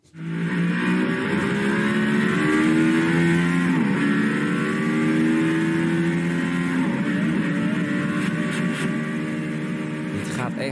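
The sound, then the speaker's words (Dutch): The engine of a Mercedes-AMG One hypercar, a production car with Formula 1 technology, screams continuously on a track, its pitch climbing through gear after gear with brief dips at each shift, loud throughout with no talking. “Ja, de Mercedes AMG One. De hmm. hypercar van Mercedes-Benz.”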